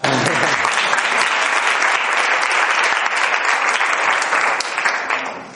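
An audience applauds steadily for a participant after a memory exercise, many hands clapping in a dense, loud, continuous patter that holds for several seconds before tapering slightly at the end.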